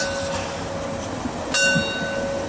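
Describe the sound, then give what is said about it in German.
A narrow-gauge steam train's bell rings with a steady metallic tone and a few sharper strikes over the rumble of the train moving through narrow town streets. No one speaks. “So, begleitet vom Bimmeln des Molly.”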